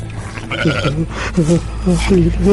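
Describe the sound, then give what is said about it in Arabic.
Sheep out grazing bleat several times in quick succession, wavering, nasal calls, with a steady low rumble running underneath. “ديما سارح مع الغنم هيا برا برا اقصد ربي هز شياهك”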